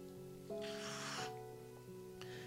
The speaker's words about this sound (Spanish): Listo, que sería esta sección sin que se escuche el ruidito del mate de fondo, no?